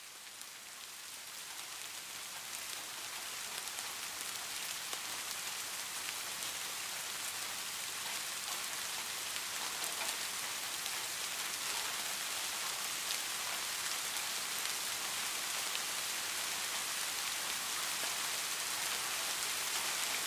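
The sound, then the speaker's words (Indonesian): Steady rain patters on a hard surface, a dense, even hiss of countless drops that holds at a constant level throughout, moderately loud with no voices. “Namaku Hujan”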